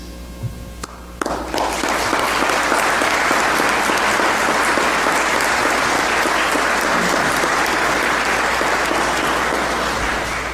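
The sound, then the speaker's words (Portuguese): Those present in the Archdiocese of Évora break into a round of applause, greeting the announcement that the sanctuary in Vila Viçosa is declared a World Youth Day 2023 sanctuary; dense steady clapping starting abruptly after a brief quiet moment and continuing at an even, loud level for about nine seconds. “O anúncio, como pudemos escutar, foi saudado com uma salva de palmas pelos presentes.”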